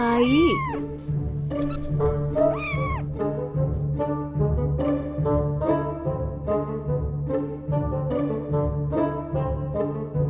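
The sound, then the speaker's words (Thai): A mother cat laughing gleefully lets out a couple of loud, drawn-out meows with rising and falling pitch near the start, followed by steady, rhythmic tonal sound that continues for several seconds. “แม่แมวได้หัวเราะอย่างสะใจ”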